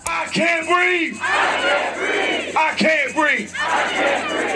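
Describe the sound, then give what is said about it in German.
A large crowd of protesters at a demonstration against racism after the death of George Floyd chants and shouts in unison, loud rhythmic bursts of many voices rising and falling in repeated phrases such as "No peace without justice", "Stop racism" and "I can't breathe", with a steady roar between chants. “Kein Frieden ohne Gerechtigkeit, stoppt Rassismus oder ich kann nicht atmen, schreien sie in London, in Rom, Madrid, Berlin oder Brisbane.”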